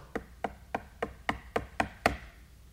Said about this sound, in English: And a knock comes at the door.